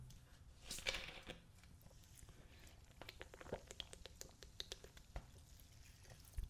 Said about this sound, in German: So, ich muss noch mal kurz eine Kleinigkeit trinken. Ich hoffe, ihr hört das gerne.